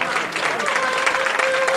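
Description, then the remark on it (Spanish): A crowd's first applause on Calle Altares in the Bellavista neighbourhood as a procession reaches the street and the Marcha Real begins: a dense, continuous patter of many hands clapping at an even loudness, with a faint sustained tone running beneath the clapping. “Primeros aplausos y suena la marcha real”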